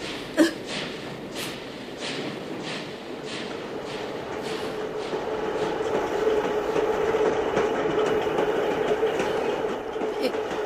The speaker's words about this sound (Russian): О, я... это наш поезд.